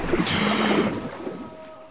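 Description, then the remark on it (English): A burst of water splashing as a diver's head breaks through the surface, fading after about a second into quieter sloshing and lapping. No one speaks. “I gasp for breath as my head breaks through the surface.”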